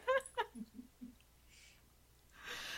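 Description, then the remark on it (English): A puppy whimpers: a couple of short, high-pitched whines followed by a few soft, low whimpers, then a brief rustling noise at the end. “What was that? Puppy.”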